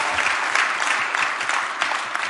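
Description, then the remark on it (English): An audience bursts into steady applause, a hand clap for the Lord, many hands clapping at once in a dense, crackling wash of sound that holds fairly loud and even for a couple of seconds, with no voices. “Can we get a Lord a hand clap?”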